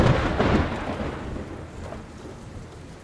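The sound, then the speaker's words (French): A thunderstorm with steady rain hissing throughout and a deep rumble of thunder rolling early on, then slowly fading into the downpour. “Eh bien, nous allons parler d'orage, de foudre, de tonnerre, d'éclairs et tout ce qui les accompagne.”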